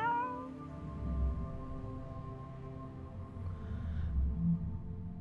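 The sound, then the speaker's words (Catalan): A female cat meows in a long, drawn-out wail, its pitch sliding with strong harmonics, clear with a low rumble beneath, in a flat in Barcelona. “De moment sóc una gata que viu en un pis de Barcelona al segle XXI.”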